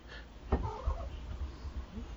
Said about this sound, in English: You might have just heard him go. Yeah, I heard a cat. Yeah, he makes weird sounds.